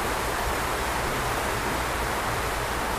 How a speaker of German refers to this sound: Vielleicht hört ihr uns noch, also der Regen wird immer stärker